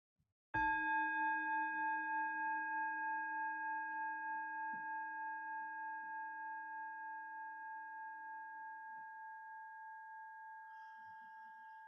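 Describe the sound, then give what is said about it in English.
A small meditation bell is struck once, producing a clear, pure ringing tone with steady overtones that lingers and slowly fades over many seconds, with no one speaking. “Let's start with a little bell. We'll follow it from the beginning to the end.”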